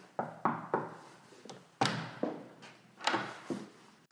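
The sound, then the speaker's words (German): Someone knocks on the wooden door of an inn in a series of firm knocks, around eight in all, falling in uneven clusters with short pauses between. No one speaks. “Doch es dauerte nicht lange, da klopfte schon wieder jemand an die Tür.”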